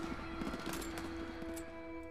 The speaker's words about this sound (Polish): W mgnieniu oka moich uszu dobiegł odgłos dziesiątek wystrzałów.